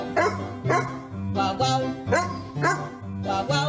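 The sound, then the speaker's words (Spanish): A dog barks over and over in a steady rhythm, each loud bark landing on the beat of music playing underneath, about six barks in a few seconds. “Y yo no sé cómo toda esta gente logra que sus perros hagan eso.”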